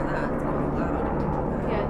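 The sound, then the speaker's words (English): A helicopter drones overhead, a steady low rumble with a faint rhythmic beat that fills the whole moment, while muffled voices murmur underneath. “There's a helicopter flying above.”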